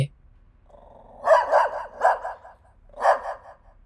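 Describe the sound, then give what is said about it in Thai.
Three or four loud, yappy dog-like barks come in quick bursts, with a short pause before the last one, made by masked children imitating a dog rather than a real animal. “พวกเด็กๆ เริ่มทำเสียงดังขึ้นกว่าเดิม จนเริ่มกลายเป็นเหมือนเสียงเห่า”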